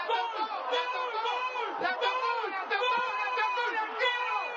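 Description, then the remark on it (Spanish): A huge stadium crowd roars and cheers after Paolo Guerrero's goal for Peru against Colombia, a dense, steady wall of overlapping shouting voices that stays loud for the whole stretch, with rising and falling yells throughout. “Lo que suena es el gol que metió contra Colombia y que le dio la posibilidad al Perú de pelear al repechaje para ir al Mundial Rusia 2018.”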